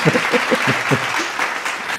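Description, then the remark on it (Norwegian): A canned audience cheering effect, triggered by pressing a button in a studio: dense, steady clapping with a few voiced whoops at the start, holding at an even loudness for about two seconds. “og publikum jubler!”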